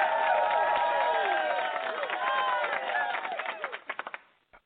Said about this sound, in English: You get to have us applause again. We gotta wear it out.